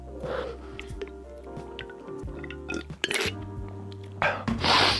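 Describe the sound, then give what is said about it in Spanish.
Someone takes sips from a small glass: a few wet gulps and swallows with breathy exhales between them, over a steady low hum, with no talking. “Eh, voy a dar un trago así a mi vasito.”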